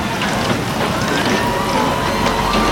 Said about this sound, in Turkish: Öküz gözü büyüklüğünde damlalardan oluşan yağmur, ardından erik büyüklüğünde dolular yağmaya başladı insanların tepesine. Kısa sürede şehrin sokakları sel sularıyla doldu.